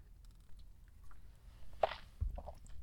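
A single quick sip of coffee, a soft brief slurp followed by faint mouth and cup noises in otherwise quiet surroundings, with no one talking.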